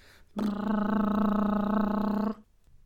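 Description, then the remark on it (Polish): A refrigerator motor kicks on abruptly, holding a steady, loud, low buzzing hum rich in overtones for about two seconds before cutting off sharply. No one speaks. “że w poprzednim odcinku około, teraz już nie pamiętam, dziewiątej albo dziesiątej minuty, włącza się lodówka.”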